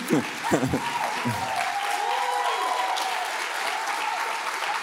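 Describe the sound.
An audience claps steadily for several seconds, a moderate, even patter of many hands that never builds to a roar, with a brief voice and a few faint whoops mixed in near the start.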